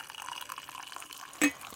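Tea pours steadily into a cup, a soft continuous trickle that ends with one short, bright clink of china. No one speaks.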